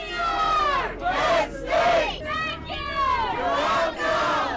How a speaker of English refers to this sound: They chanted the school chant, We are Penn State, not just in the football stadium. It was in the student union, it was in the shuttle bus. They would just chant it out of the blue.